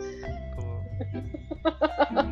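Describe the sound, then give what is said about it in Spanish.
A chair creaks, starting with a long, drawn-out squeal and then breaking into a quick run of rhythmic squeaks that sound almost like clucking. “Ah, no, puedo, no puedo escucharte seriamente con esa silla de fondo.”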